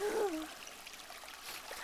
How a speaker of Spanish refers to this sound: Para mí escuchar el sonido del río correr es como un vals, un vals sobre las olas.